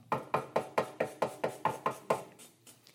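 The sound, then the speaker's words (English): A firm, persistent knocking on a door: about ten evenly spaced raps in quick succession, fairly loud, trailing off into quieter taps at the end, with no voices. “For others of you, though, this morning, it's a little stronger, persistent knock.”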